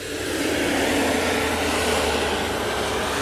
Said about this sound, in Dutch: Enorme vrachtwagens rijden met vele lawaai af en aan.